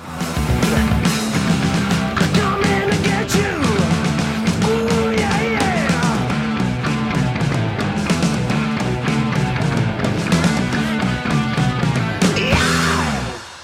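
A loud, dense heavy metal track with pounding drums and distorted guitars plays continuously, closing with a sharp, piercing scream as the song cuts off at the end.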